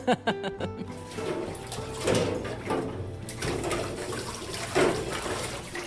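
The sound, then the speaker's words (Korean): Running water gushes steadily while dishes clink and clatter at intervals, with a couple of louder knocks of crockery against the sink, as a piled-up load of dishes is washed after serving lunch customers at a restaurant in Yeonsinnae, Eunpyeong-gu, Seoul. No one speaks. “설거지가 쌓여 있어서 지금 하고 있습니다.”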